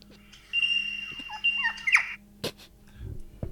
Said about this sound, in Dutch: Dat, dames en heren, was de liervogel.